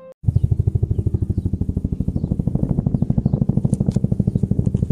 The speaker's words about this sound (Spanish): Llegamos a una colina, cuando íbamos bajando se escuchó a lo lejos un helicóptero.